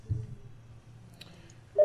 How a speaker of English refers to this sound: Excuse me, my office phone's calling at the same time. it never rings at eight o'clock.